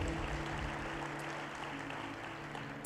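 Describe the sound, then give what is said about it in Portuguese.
A church audience claps for God together in a dense, steady wash of applause that holds at an even level throughout, with a faint low hum sustained underneath and no one speaking. “Podemos aplaudir a Deus, a palavra de Deus, que é maravilhosa.”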